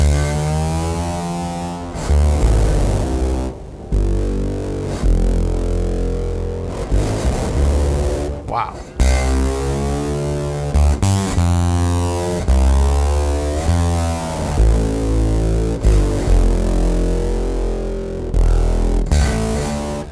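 A low bass guitar plays with heavy distortion and its octave-up effect turned off, gritty sustained notes and short phrases with brief gaps, loud with no talking.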